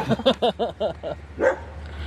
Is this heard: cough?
no